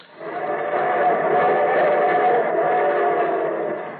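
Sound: approaching train with whistle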